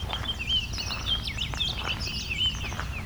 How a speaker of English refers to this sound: So it wasn't the software getting confused, it was me having a warbling vireo and Baltimore Oriole here.